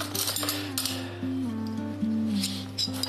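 Metal cutlery clinks and taps a few times at irregular moments as a table is set with two knives and a fork, over a steady low electrical hum.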